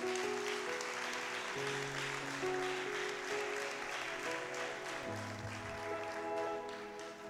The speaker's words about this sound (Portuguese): Então aplauda ele. Aplauda ele.